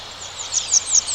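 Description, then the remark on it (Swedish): A grey wagtail by rapids gives a quick series of sharp, high chirping calls, about five or six notes, rising slightly in loudness, over a steady hiss of rushing water from the rapids. “Ja, nu är Forshällan.”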